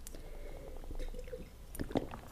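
Someone drinks water: soft wet swallowing and liquid squishes, ending in a couple of sharper gulping clicks. Fairly quiet, with no talking.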